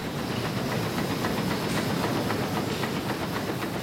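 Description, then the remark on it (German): An iron conveyor belt carries tea through a drying oven at exactly 95 degrees Celsius, where the heat stops fermentation. It makes a steady, loud mechanical rumble and hiss, with regular creaking clacks repeating at an even rhythm. No voices. “Als nächstes läuft der Tee durch den Trockenofen auf einem knackenden eisernen Fließband.”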